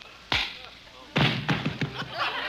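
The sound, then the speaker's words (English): A glove slaps a face with a single sharp smack, then after a pause comes a rapid flurry of four or five more loud slaps. “I slap your face with my glove.”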